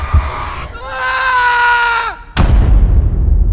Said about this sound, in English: I screamed when I crashed into the man. I went down in a tumble of limbs, my skull colliding with one from the walls and making me see stars.